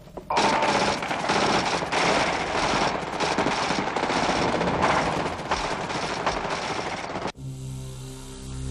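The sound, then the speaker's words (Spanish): Sustained automatic fire from a Kalashnikov assault rifle, loud, rattling in rapid continuous bursts for about seven seconds before cutting off abruptly into a low electrical hum. “La única manera de detectar al enemigo era el ruido característico del Kalashnikov.”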